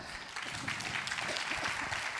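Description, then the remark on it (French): An audience claps for three guests, a dense wash of many hands at a constant moderate level that holds throughout without breaks or voices. “Déjà, on vous applaudit tous les trois.”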